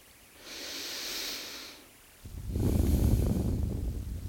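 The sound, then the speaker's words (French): One slow, deep breath, first a soft airy inhale through the nose, then a short pause and a louder, fuller exhale that gushes out. No one speaks. “Tout doucement, prenez une grande respiration.”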